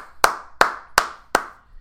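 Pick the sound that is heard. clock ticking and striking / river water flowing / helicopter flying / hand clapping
hand clapping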